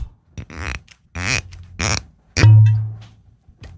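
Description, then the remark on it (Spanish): A chilled soda siphon from home gives three short, forceful hissing spurts, then one louder burst that settles into a low, rushing gurgle. Fairly loud, with no voices. “resultó que me vine con mi sifón. Mi sifón de casa, helado, esto suena así.”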